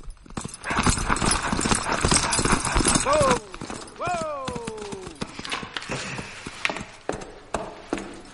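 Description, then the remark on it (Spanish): Rapid, steady hoofbeats clatter loudly as a horse trots outside a house. Then a horse whinnies, and a few scattered, sharper hoof clops follow as the trotting eases off. “De pronto se despierta al oír el trote del caballo en el exterior.”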